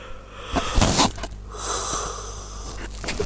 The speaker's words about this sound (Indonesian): ngantuk eh maaf ya tadi menguap ya gitu